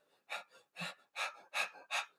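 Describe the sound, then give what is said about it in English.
A run of five sharp, shallow gasping breaths in quick succession, fairly loud, each a brief airy rush with short gaps between, and no talking; a person demonstrating stressed breathing, shallow and high in the chest and throat. “Your your breathing gets shallower, it moves up in your body from your stomach to your chest to your throat.”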